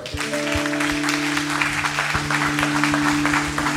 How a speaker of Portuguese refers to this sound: Aplauda o Senhor.